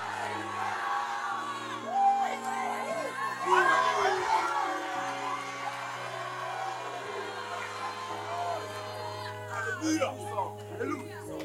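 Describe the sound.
A large audience shouts hallelujah and cheers together, many overlapping voices rising in excited whoops and calls, over a steady sustained keyboard tone throughout.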